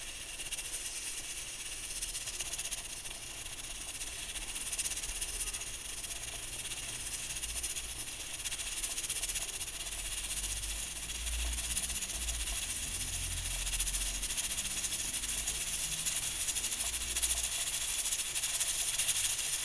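A pressure cooker hisses steam in a steady, continuous high-pitched rush that holds at an even level for the whole stretch, with a faint low rumble underneath and no talking.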